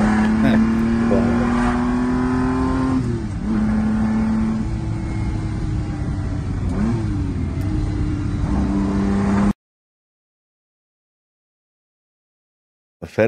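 A Ferrari 250 GT sports car engine revs in a loud, steady drone, its pitch climbing and dipping several times over about nine seconds before cutting off abruptly into silence.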